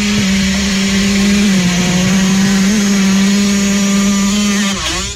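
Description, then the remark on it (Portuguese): A person imitates a two-stroke motorcycle engine with their mouth, buzzing loudly and steadily at a high, whiny pitch, holding an even idle for about five seconds before dipping briefly at the end. No one talks. “Isso é uma moto, do, isso é uma moto dois tempos.”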